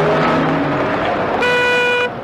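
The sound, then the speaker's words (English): Busy road traffic in the United Kingdom rumbles loudly, then a car horn blares a sustained, steady honk for about half a second before cutting off, with engine noise continuing underneath. “No rest from danger, though, because all around us is that deadly daily danger, traffic.”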